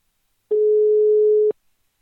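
A single steady telephone ringing tone of an outgoing call to the licensing officer at the club Brøndbyernes IF, one clean one-second beep at a low pitch, heard alone with silence before and after.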